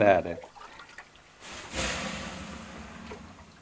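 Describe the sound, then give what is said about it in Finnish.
A brief voice at the start, then water is thrown onto hot sauna stones and a broad hissing sizzle of steam swells and slowly fades, fairly loud. “heitäs ei vähän löylyä”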